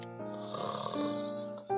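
A single long, drawn-out snore with a buzzy, wavering tone from a cartoonish owl sleeping in its tree hole, ending in a short, abrupt snort. No one speaks.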